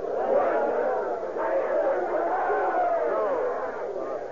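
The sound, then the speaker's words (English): An angry crowd shouting outside, a steady, dense roar of many overlapping voices with no single voice standing out, holding at a fairly even loudness for the whole stretch. “What, what's all that shouting about? Oh, don't poker face me, Matlock. They want your hide out there.”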